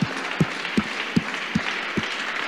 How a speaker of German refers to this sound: Deswegen würde ich sagen, lass uns Hannes einen kräftigen Applaus geben